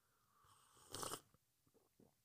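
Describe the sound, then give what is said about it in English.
A single quiet sip of coffee, a brief airy slurp followed by a few soft mouth clicks and a swallow, with no one talking. “Sorry, guys, I'm sipping coffee.”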